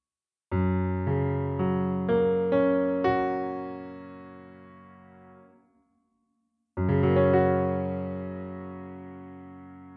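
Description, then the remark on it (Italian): Guitar in an open D tuning with a capo at the fourth fret, giving a rarely used F-sharp tuning, strummed in a quick run of about six chords that ring out and fade, then a short silence before one more full strum sustains and slowly decays. No talking. “per cui in realtà questa cordatura di Re con il capotasto al quarto tasto ottiene una cordatura molto particolare e molto poco utilizzata che è una coratura di Fa diesis e suona così.”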